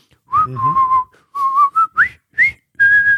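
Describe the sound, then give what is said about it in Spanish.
Several people whistle a jaunty march melody together, a run of bright sustained notes with short gaps between phrases, fairly close and clear with no talking. “Eh, empieza el, capítulo en una escena muy clásica que los fans de, Friends reconocemos y es que están en el, apartamento de las chicas, todos silbando el puente sobre el río Kwai”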